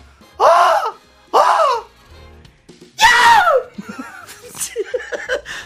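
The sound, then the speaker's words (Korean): A participant at a Monday tone-deaf clinic imitates a water deer's screaming call: three loud, shrill, hoarse shrieks, the last one longest, followed by quieter chatter and laughter. “이거 보통 이제 우리 그 군복무 하면 초소에서 많이 보거든요”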